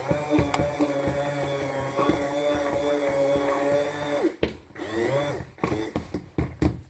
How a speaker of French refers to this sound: Et quand le batteur, ça devient de plus en plus lourd dans le plat, à passer le mixeur, c'est que la pâte est prête.